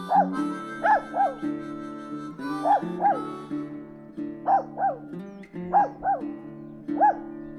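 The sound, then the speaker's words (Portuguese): A small dog about 25 centimetres tall yaps in quick pairs of sharp, high-pitched barks, about ten in all, over a steady low rumbling growl. It is growling at a mongrel dog four or five times bigger, in a yard. No voices. “Ele se esgueirou por uma fresta da porta, correu para o quintal e, do alto dos seus imensos 25 centímetros de altura, rosnava para um vira-latas quatro ou cinco vezes maior do que ele.”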